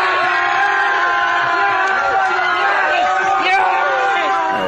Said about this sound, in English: And here's the family celebrating in Bali when he hits his ton. Yeah!